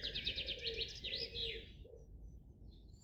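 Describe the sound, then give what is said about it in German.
Several birds sing in a forest, a rapid run of bright chirps and trills up high for a second and a half, with a soft lower cooing beneath, then quieter scattered calls over a faint outdoor hush. “Hörst du so wie ich verschiedene Vögel oder hier und da ein Rascheln und Knacken unter deinen Füßen von den Blättern und Zweigen?”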